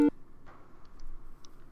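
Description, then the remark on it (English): A short electronic ringtone for an incoming internet call, coming in just after the internet connection returns: one loud tonal burst at the start, followed by a few faint, high blips over quiet, with no talking. “Oh shit, he's calling.”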